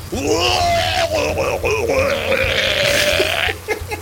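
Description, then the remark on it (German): A voice mimics retching and vomiting with loud, drawn-out gagging groans that waver up and down in pitch, ending in a few short choked heaves. “Äh, Gott, ich würfel jetzt einfach mal selber auf Konstitution, ob ich mitkotze.”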